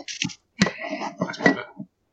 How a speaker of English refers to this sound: that was one hell of a sip. that was good.